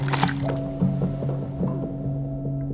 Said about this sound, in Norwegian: Mens hun er bevisstløs, fortsetter kirurgen arbeidet sitt. Det kan ha foregått omtrent sånn her. Han borer et hull i hjerneskallen hennes med en sveivedrill.